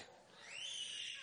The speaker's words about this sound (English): That's my alarm clock going off over there. I hear it.